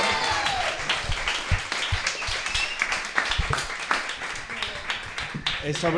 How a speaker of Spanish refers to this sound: En efecto, puedes aplaudir ahora.